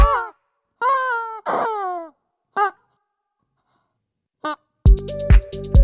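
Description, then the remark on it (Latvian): A long, yellow rubber duck dog chew toy honks out a short melody in loud, wheezy squeaks of changing pitch, with brief pauses between notes and a busier burst of squeaks at the end. “viņu izpildīs gumijas pīle.”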